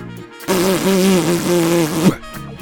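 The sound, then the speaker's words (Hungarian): A wet mouth raspberry blown through the lips to show how a carburettor (atomizer) sprays, lasting about one and a half seconds: a loud, low, steady buzzing flutter mixed with a hissing spray, with no talking. “De nem nyelitek le, hanem csináltok a szátokkal egy jó erős púzó hangot, ilyet, hogy”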